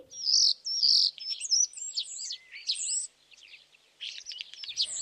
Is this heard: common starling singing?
yes